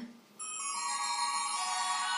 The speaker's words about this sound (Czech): Ne, nezvoň už, prosím tě. Proč? Ten zvonek moc zvoní.